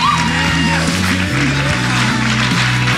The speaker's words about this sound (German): Lass uns jetzt nochmal einen Applaus geben. Kann man nicht zu viel machen.